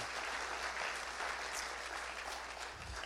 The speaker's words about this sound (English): And so let's just give them a round of applause and just thank them for all that they do.